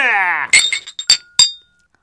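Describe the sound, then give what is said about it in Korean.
A brief voice gives way to several bright glass clinks as glasses are clinked in a toast, about four sharp strikes, each leaving a thin ringing tone that fades out into silence. “남편은 양손에 잔을 들고 네? 왼손이 네? 오른손을 축하하기도 하고 오른손이 왼손을 축하하기도 하고 우와.”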